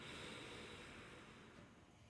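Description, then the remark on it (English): A slow, steady inhale through the nose for a count of four, a soft airy rush lasting about two seconds and gently tapering off. It is fairly quiet, with no talking. “Breathing in through the nose for four”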